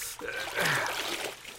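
water running

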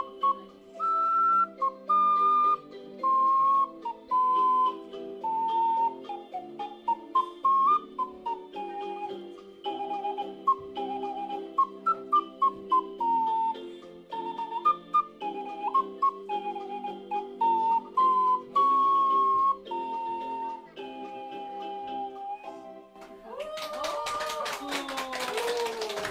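ocarina being played

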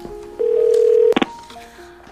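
telephone dialing a call

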